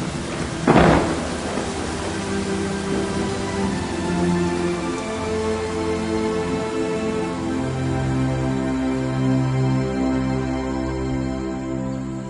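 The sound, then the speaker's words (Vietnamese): Heavy rain pours steadily throughout, opening with a sudden sharp crack like thunder, while soft sustained musical tones hum underneath the downpour. “Mưa chắc còn dài Thôi dầm mình về nhó”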